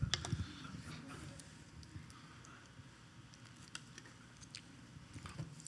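Quiet mouth sounds of someone sipping and swallowing water, a few soft wet gulps and smacks over a low background hum, with no talking.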